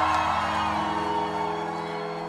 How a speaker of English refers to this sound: As you listen to just how huge the cheers are for Donald Trump's disembodied voice